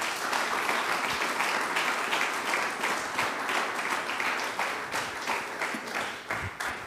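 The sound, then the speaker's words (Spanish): An audience claps steadily and loudly in praise to the King of Kings during a sermon, a dense, continuous wash of many hands for several seconds, with faint voices mixed underneath. “hermano, aleluya, dele palmas al Rey de Reyes.”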